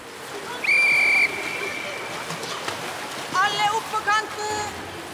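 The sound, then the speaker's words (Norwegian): A single loud, steady whistle blast lasting about half a second, blown by a swimming teacher during a school swimming lesson in a pool, cuts through a backdrop of splashing water and echoing pool noise, followed by faint high-pitched shouts. “Det er symjelæreren som blåser i fløyta.”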